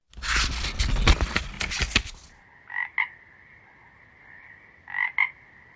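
A frog croaks in two short double bursts a couple of seconds apart over a steady high drone, after a loud, rough scraping rush of noise at the start.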